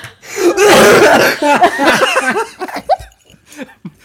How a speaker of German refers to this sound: Du, wenn du hustest, wirst du auch nicht schneller satt, doch.